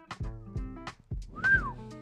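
A brief, clear whistled note swells slightly and then glides downward. It sits among other voiced, humming sounds and a few dull low thumps.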